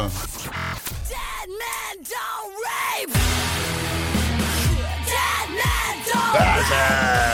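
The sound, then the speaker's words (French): A loud metal song, a female singer's latest single about women's rights, with harsh, screamed vocals in arching bursts, first over sparse backing, then over dense distorted guitars and pounding drums that kick in after a few seconds. “Certains même la catégorisent dans le métal, hein, avec pour preuve le dernier single qu'elle a sorti”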